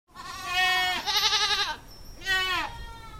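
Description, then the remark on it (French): Goats on a dairy goat farm bleat loudly, three wavering, harmonic calls: a long one, a second with a trembling vibrato right after, then a shorter one following a brief pause. “Rapidement, le couple décide de se lancer dans l'élevage caprin, avec au départ 18 chèvres et un atelier de transformation laitière, le lait n'étant pas récolté dans ce secteur.”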